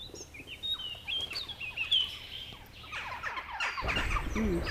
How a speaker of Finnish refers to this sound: Aha, naakka. Naakat. Joo. Mitä me ajateltiinkin, että naakat on joo. varmimpia, mistä äänen saa tähän aikaan vuodesta. No, ehdottomasti, joo. Ihan kiva, että ne ilmaantuivat tähän sitten.